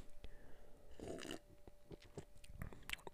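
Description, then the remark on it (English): A quiet sip of beer: a brief slurping rush of liquid followed by soft swallowing and wet mouth clicks, with no talking. “Just took another sip.”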